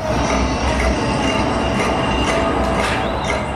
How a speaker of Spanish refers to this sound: Qué ruidos las cadenas. Uy. Ya está, ya se ha puesto en el agua.